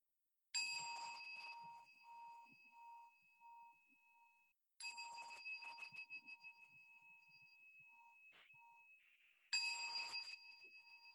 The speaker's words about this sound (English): I know for some people the the noise cancellation makes the bell sound a little odd.